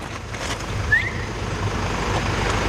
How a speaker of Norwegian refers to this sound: Tomgang. Tomgang. Tomgang. Den går på tomgang.